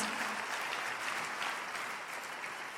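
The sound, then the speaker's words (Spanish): A crowd claps steadily for the people in the last rows, a dense wash of many hands hitting together at an even, fairly loud level throughout, with no voices standing out. “Démosles un fuerte aplauso a todas las personas que están allá en las últimas filas.”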